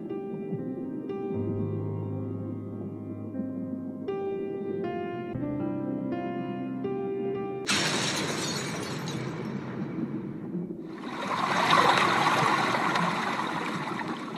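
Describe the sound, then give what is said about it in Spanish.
Soft tonal music plays, then a sudden loud crack and shattering burst cuts in and trails off into a rushing, noisy wash, like breaking glass fading into surging water. “De pronto, una grieta. Tu entorno perfecto se fragmenta.”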